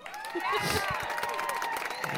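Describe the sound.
A short applause and cheering sound effect, loud and dense, with overlapping voices whooping over steady clapping throughout the two seconds, played to applaud someone going back to studying.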